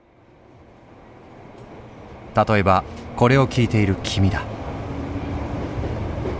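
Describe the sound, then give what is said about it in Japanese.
A steady low rumble of a moving commuter train fills the space, swelling slightly over time, while a man speaks briefly in the middle over the constant drone. “通勤電車の中、頭はぼんやり、心はどんより。”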